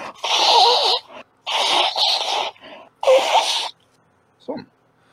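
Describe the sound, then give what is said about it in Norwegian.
Someone blows their nose in three loud, breathy honks of about a second each, separated by short pauses, followed by a brief faint sniff. “Det er satt å se en podkast der vi snyter oss.”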